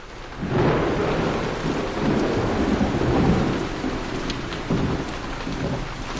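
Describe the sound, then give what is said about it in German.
Steady, heavy rain pours down continuously, a dense hiss with a deep rumbling undertone like thunder, fairly loud throughout with no voices. “Es regnet immer noch und die Leute vertreiben sich die Zeit im Supermarkt.”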